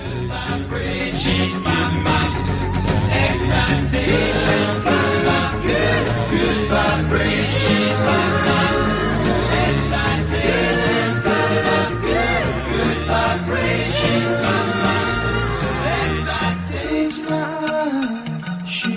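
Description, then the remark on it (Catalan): A theremin's eerie, gliding electronic tone swoops in the background of a loud, full pop song chorus, beneath harmonized singing voices and steady band accompaniment. “I ara deixem enrere el so del Ceremin”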